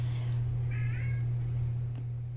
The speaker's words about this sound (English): but don't mind my cat.